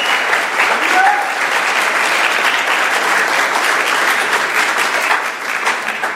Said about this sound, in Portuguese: Você crê nisso? Então aplauda o Senhor aí que eu não quero ver você quer.